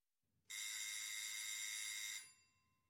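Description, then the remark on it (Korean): A doorbell at Sherlock Holmes's rooms rings once in a single steady, bright buzz lasting under two seconds, loud, then trails off into quiet with no one speaking. “초인종 소리가 들리자 그가 의자에서 벌떡 일어나더니 두 눈을 반짝였다.”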